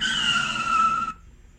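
A car's brakes screech with a loud, high tire squeal lasting about a second, then cut off abruptly into near silence. No voices are present.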